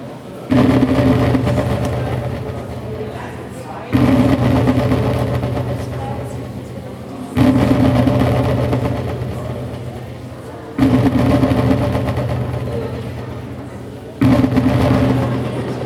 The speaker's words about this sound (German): da sind zwei Boxen drin, die sich so gegenüberstehen und die vibrieren auch richtig